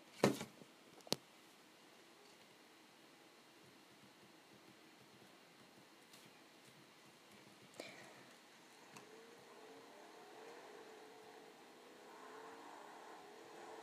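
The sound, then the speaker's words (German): A car engine in a video game hums and gradually revs up, growing louder toward the end, with a few sharp clicks near the start and one midway. No one speaks. “Schnapp mir am besten ein Auto.”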